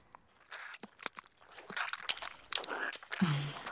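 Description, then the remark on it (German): Wet smacking and squelching noises, picked up by contact microphones inserted vaginally in a 1995 recording, recur in a loose, somewhat rhythmic series of soft clicks and slurps, with a louder, fuller burst near the end. “Also, ich höre so Schmatzgeräusche. Ziemlich feuchte Angelegenheit.”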